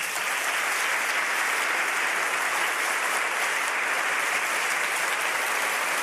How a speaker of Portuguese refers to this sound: Irmãos, eu queria que vocês recebessem com muito carinho e aplauso